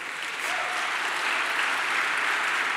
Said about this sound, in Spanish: Eso se merece un aplauso para el Señor.